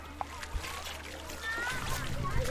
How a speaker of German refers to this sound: Wir sind äh, durchs Wasser gelaufen und haben herumgeplanscht.